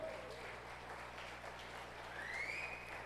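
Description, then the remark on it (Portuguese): A church audience claps together in sustained, dense, strong applause for the Lord Jesus that holds steady throughout, with a faint rising whistle-like tone near the end and low background hum. “Uma salva de palmas para o Senhor Jesus aí, bem forte aí.”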